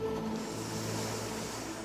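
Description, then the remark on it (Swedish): A long, slow, deep breath drawn in through the nose, a soft airy hiss that holds steady for a couple of seconds, quiet with no talking. “Vi andas in genom näsan”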